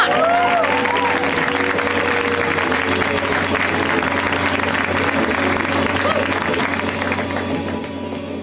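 A crowd applauds loudly and steadily for several seconds as comedian Joe Zimmerman is introduced, dense clapping with some cheering mixed in, tapering only slightly toward the end.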